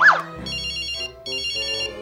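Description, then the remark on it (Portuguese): The speaker's mobile phone ringtone, an incoming unidentified call, plays two bursts of bright, repeating electronic tones with a short gap between them, preceded by a brief whimper-like sound at the start. “Ah, meu telefone tá tocando.”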